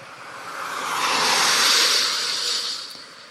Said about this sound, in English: Every time a car passes on the wet concrete, I hear the word yes. When a group of cars go by, one after another, it's a flurry of yeses in a tag team procession.